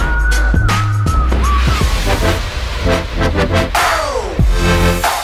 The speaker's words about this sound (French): Un jingle hyper violent, les oreilles qui sifflent, un manque de sommeil accru et une envie folle de faire la sieste.